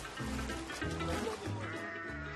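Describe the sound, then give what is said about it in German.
Sheep bleat repeatedly in wavering, drawn-out cries, several calls overlapping, as Senegalese people wash them in the Atlantic Ocean at a beach, over a steady wash of background noise like surf or splashing water. “Ich frage mich, warum waschen die Senegalesen ihre Schafe im Meer?”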